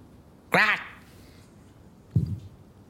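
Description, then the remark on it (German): A voice imitates a raven on someone's shoulder cawing threateningly at a person: one loud, harsh, drawn-out croak, then after a pause a shorter, lower, throaty second call, against a quiet background. “Das ist ein bedrohliches Krähen”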